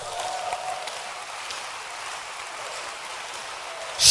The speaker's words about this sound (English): Can you clap your hands for this verse?